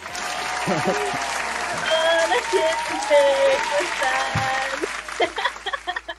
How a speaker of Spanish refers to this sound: ¿qué se siente recibir los aplausos? Este, no, me lo esperaba, no me lo esperaba.